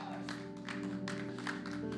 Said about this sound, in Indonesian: Kasih tepuk tangan yang meriah untuk Tuhan Yesus. Come on!